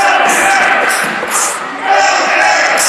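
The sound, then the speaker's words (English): A large wrestling crowd cheers for a hometown wrestler in a loud, continuous roar, dipping briefly in the middle before swelling back to full volume, with shouts and voices mixed through it. “This crowd firmly behind LJ”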